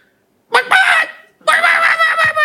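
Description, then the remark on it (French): A person imitates a clucking hen with two loud, nasal squawking bursts, the second longer, separated by a brief pause. “La poule, elle vient de voir, elle fait la poule. Je fais pot pot.”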